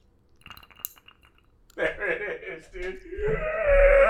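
A few soft glassy clinks, then a steady pour of liquid into a glass, gurgling and splashing as its pitch rises while the glass fills.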